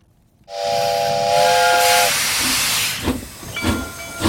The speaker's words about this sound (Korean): 아, 기차 소리예요. 기차 소리에는 글쎄 중년 이상 되신 분들은 다 추억이 있죠.